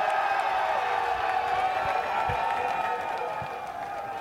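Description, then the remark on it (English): A live audience applauds and cheers to welcome a guest onto a show, a dense, steady wash of clapping and raised voices that stays loud for the whole few seconds without pause. “Warm round of applause for the man himself”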